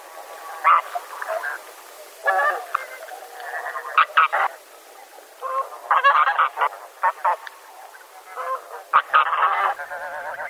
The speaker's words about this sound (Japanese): ヒシクイですガンやカモの仲間で全長およそ1メートルカモよりずっと大きくて首も長いけれど白鳥よりは小さいといえばヒシクイのおおよそのサイズと体型がイメージできるでしょうか